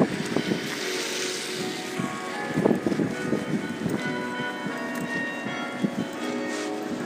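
Bell tower bells ring, their sustained, overlapping tones hanging under steady wind noise and outdoor rumble, with a few stronger strikes mid-way. No one speaks.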